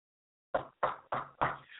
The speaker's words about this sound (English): Behold, I stand at the door and knock.